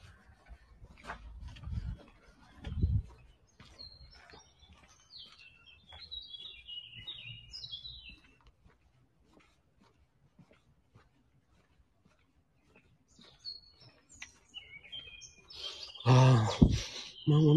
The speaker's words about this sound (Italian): Eh sì, sentite che spettacolo. Pieno di uccelli.